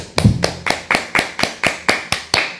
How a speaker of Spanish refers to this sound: Ahora sí un fuerte aplauso a todas las naciones.